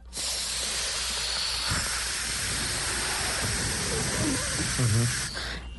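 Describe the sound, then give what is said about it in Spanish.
A long, steady breathy hiss of air exhaled with the mouth closed and the tongue pressed to the palate behind the front teeth, fairly loud, with a short low humming buzz rising briefly near the end before the breath fades out. “Y usted cierra la boca y empieza a exhalar con la boca como haciendo un zumbido.”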